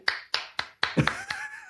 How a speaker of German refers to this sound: Ja, das Publikum applaudiert, jeder zu Hause auch. Wir haben es bis hierhin gehört.